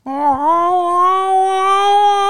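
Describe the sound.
A person's voice imitates a cat retching before vomiting: one sustained, strained, nasal wail held for about two seconds, loud, rising slightly at the start and then steady.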